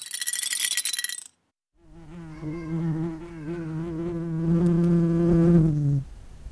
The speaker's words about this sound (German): Die eine Wespe hat sich auf die andere geschmissen oder die eine Wespe hat die andere Wespe auf den Rücken geworfen. Dann lagen die übereinander und haben sich bekriegt. Eigentlich wie ein Kampf zwischen Menschen, so übereinander.